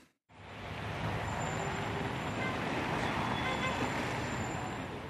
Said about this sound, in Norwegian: Biler og scootere i sentrum av Roma. Antallet kjøretøy er langt lavere enn normalt, selv for en dag mellom jul og nyttår.